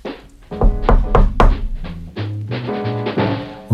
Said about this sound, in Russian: Когда подошло время ехать на бал, Ольга стала искать отца. Не найдя его дома, она постучала в мастерскую –